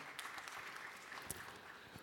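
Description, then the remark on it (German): Audience applause for two people about to take the stage: a dense, steady wash of many hands clapping, with scattered sharper individual claps standing out, sustained at an even level throughout. “Nochmal einen Applaus für die beiden bitte und dann könnt ihr loslegen.”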